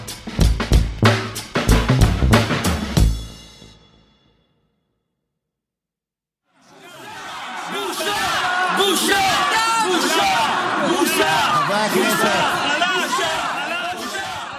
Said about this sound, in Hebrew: אני יודע מה אתם חושבים, שזה עוד פרק על המהפכה המשפטית. עובדה, סערה בכנסת, צעקות בושה, מה זה עוד יכול להיות?